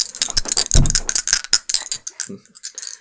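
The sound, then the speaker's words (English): A pair of percentage dice, rolled for a credit rating roll, clatters and rattles in a quick burst of sharp clicks, with one dull thump as they strike a microphone, then a few light ticks as they settle. “So you want to roll these percentage dice.”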